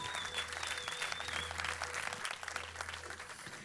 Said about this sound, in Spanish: Un fuerte aplauso, si Dios, casa de Jesús.